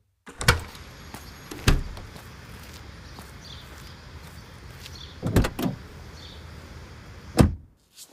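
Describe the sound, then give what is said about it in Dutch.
Someone climbs into their van at 6:35 in the morning to go to work: a few loud thuds and clunks spaced several seconds apart, ending with a door sliding shut, with rustling movement in between and no talking. “Ik stap nu mijn bus in en om tien voor zeven ben ik al op mijn werk.”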